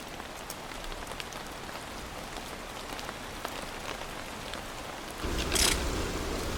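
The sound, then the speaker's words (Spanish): Heavy snow falls intensely but calmly through the pine forests of the Sierra de Guadarrama as a steady, dense patter of soft ticks and drops, with a louder rushing swell near the end. No voices. “Nieva en los pinares de la Sierra de Guadarrama, con intensidad pero con calma.”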